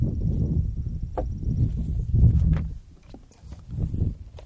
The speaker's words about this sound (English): Pardon the wind.